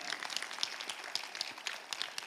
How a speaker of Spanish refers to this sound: ¿Qué tal si le da un aplauso al Señor para creer que usted está acá?